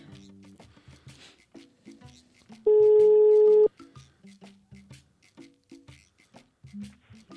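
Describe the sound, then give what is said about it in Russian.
A single steady telephone ringback tone, a flat mid-pitched hum lasting about a second, heard while dialing a call to a gestalt therapist, sounds loudly between stretches of people talking. “Гудочек пошел.”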